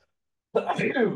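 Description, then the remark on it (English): A single sneeze bursts out after a moment of silence, loud and breathy with a rough, voiced tail lasting under a second. “That was a sneeze for everyone listening.”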